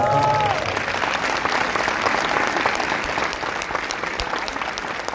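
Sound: audience applause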